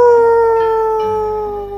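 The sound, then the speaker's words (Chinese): A rooster crows once, a loud, drawn-out, strongly tonal call whose pitch sags slowly toward the end, heard alone without any talking. “公鸡一叫，大家都起来了，新的一天开始。”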